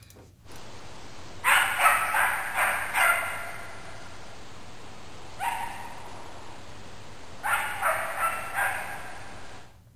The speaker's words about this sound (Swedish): Vi, vi ska lyssna på det här skallet en gång till, så ifall det är någon annan som reagerar på det.